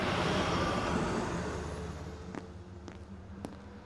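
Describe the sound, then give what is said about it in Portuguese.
A bus's engine rumbles and fades as it slows to drop off a passenger a few blocks from his destination, then three short, sharp air-brake hisses burst out near the end, spaced about half a second apart. “O ônibus o deixa a alguns quarteirões do seu amigo, e ele tem que ir a pé até lá.”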